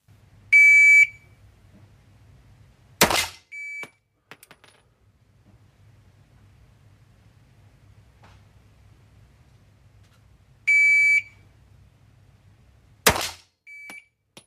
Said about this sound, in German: das vorhin aufgenommen, wie das klingt, wenn man sozusagen sieben Sekunden die Waffe nach unten halten muss und dann innerhalb von drei Sekunden den Schuss abgeben muss.